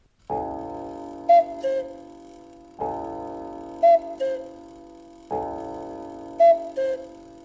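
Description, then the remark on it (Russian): An old cuckoo clock calls three times at a steady pace, each two-note descending 'cuck-oo' riding over a buzzy, wheezy drone from the mechanism. No voices are heard. “А вот голос у кукушки плохой стал.”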